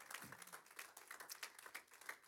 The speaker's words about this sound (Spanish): Dele un aplauso al Señor.